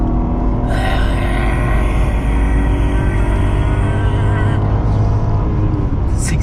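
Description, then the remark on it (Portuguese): The engine of an armored BMW 5 Series car runs steadily, a loud, deep rumble with a constant hum that holds for several seconds, without any talking over it. “Você olha e você fala assim: caramba, eu tô realmente dirigindo um carro blindado.”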